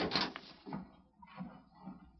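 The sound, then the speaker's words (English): The door of a sheriff's office opens early in the morning with a short rattling clack of the latch, followed by a few soft thuds of a man stepping inside. Quiet, with no talking. “And it was Buck Savage who early the next morning entered the door of Sheriff Cartwright's office.”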